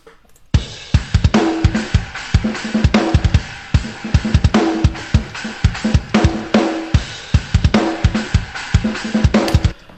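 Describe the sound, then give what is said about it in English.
A programmed drum beat plays loud and steady, crisp snare hits laced with soft ghost notes between them over a punchy kick, looping in a tight, busy groove with no voices. “But there's uh, a lot of what they call ghost notes in there on the snare.”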